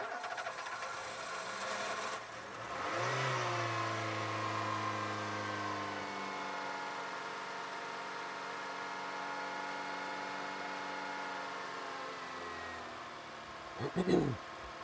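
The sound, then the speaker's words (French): Jean's car engine runs steadily, a continuous droning hum with a rising surge near the start and a brief clunk near the end. No one speaks. “Jean dans sa bagnole.”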